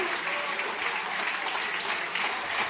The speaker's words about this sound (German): Wow, großen Applaus für den ersten Platz. Platz. Schon mal so prophylaktisch.